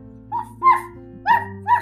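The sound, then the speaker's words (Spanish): A dog barks four times in quick, uneven succession, short sharp yaps over a steady low humming drone in the background. “De pronto escuchó un ladrido”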